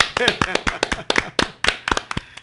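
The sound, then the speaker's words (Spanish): A small group claps in an uneven burst of sharp, loud hand claps over a couple of seconds after a performed work about Puerto Rican independence, with voices and a bit of vocal sound mixed in among the claps. “Vamos a aplaudirle aquí nosotros también.”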